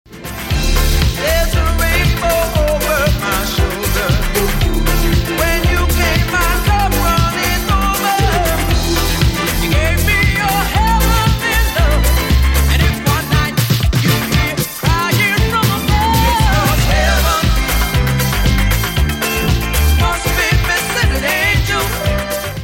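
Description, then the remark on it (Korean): A 1970s soul-pop love song plays loud and steady, with a full band, a driving drum beat and warm melodic lines running throughout, with no one talking over it. “이 부분 한 번 더 들어보세요.”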